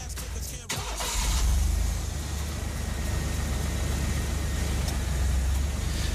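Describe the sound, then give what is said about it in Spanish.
A car engine cranks and catches, then settles into a steady low rumble that continues as the car pulls away, setting off toward the coast of Almería, Spain, with no voices over it. “qué mejor que ir hacia allá con nuestro coche, con esta Vamos allá, nos subimos a tu coche.”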